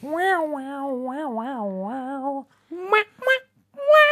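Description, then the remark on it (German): A voice imitates a bottleneck slide guitar, the bottleneck slid over the frets, with a sustained, wavering nasal tone that glides up and down for about two seconds, followed by a few shorter sliding bursts. “Und ähm, Country und so, das Bottleneck, damit slidet man über die äh, Bünde.”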